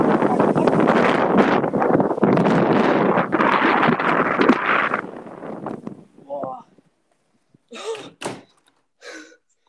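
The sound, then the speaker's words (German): Loud, roaring cold wind buffets the microphone of a phone held outside for about five seconds, broad and turbulent, then cuts out abruptly; a few short bursts of voice follow in the quiet. “Es war so Und man hat, man hat den Wild halt auch wirklich richtig hart gehört.”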